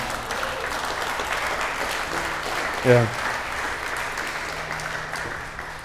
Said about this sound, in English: And you can clap for him, he's right over there.